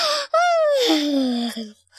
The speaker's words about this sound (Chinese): 打了一个大哈欠